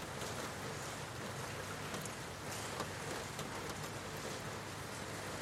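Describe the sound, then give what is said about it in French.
Steady rain patters on a window, a dense, continuous hiss of drops with a few sharper individual taps standing out now and then. No one speaks. “Vous pouvez entendre le son de ma voix posée sur la pluie qui tombe goutte à goutte sur cette fenêtre.”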